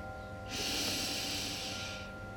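A slow, deep inhalation drawn in through the nose during a breathing practice, a soft airy rush lasting about a second and a half, quiet with no talking.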